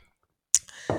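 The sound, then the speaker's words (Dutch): A quiet pause, then a sharp wet click as lips meet a glass, followed by a soft slurping sip and a brief breathy gulp of water. No talking. “Neem even een slokje water.”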